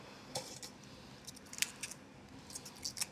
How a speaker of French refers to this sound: Ça, c'est les artichauts qu'on utilise nous en Provence. Beaucoup. Donc la technique, déjà, c'est de préparer. On va effeuiller l'artichaut, tout en cassant les feuilles droites.